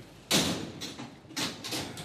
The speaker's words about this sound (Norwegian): Døra på Svarte-Maria smeller igjen. Inne i politibilen sitter menn i handjern, skulda for å planlegge noe som likner på et statskupp.